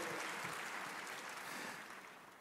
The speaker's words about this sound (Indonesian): Ayo tepuk tangan sekali lagi bagi Tuhan kita.